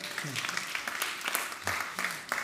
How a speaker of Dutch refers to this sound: Gewoon een applaus voor elkaar, maar nog even een heel groot applaus voor God.